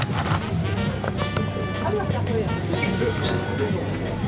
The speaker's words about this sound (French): voilà, moi j'aime bien les ambiances euh, de marché parce que ça bouge dans tous les sens, ça sent pas bon, il y a des gens de partout, enfin et on voit tout, ouais. c'est très, très mélangé.